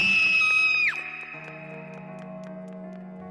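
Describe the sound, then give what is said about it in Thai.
A nurse, frightened, runs out of a bathroom and out of the room with a loud, piercing scream that holds a high pitch for about a second, then drops sharply and cuts off, leaving a low, steady hum underneath. “เธอได้วิ่งเข้าไปในห้องน้ำแล้ววิ่งกลับออกมาพร้อมเสียงกรีดสนั่นออกจากห้องไป”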